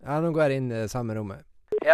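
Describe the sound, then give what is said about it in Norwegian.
A man speaks Norwegian in a thin, narrow-band voice while talking on the telephone, with a brief click partway through and another short burst of speech at the end. “Sånn høres det ut når jeg prater i telefonen.”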